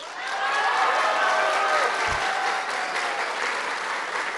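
A crowd in Colotlán breaks into steady, sustained applause for the paisanos, the emigrants sending money home: a dense wash of many hands clapping at an even loudness throughout, with a few faint whistles or cheers mixed in.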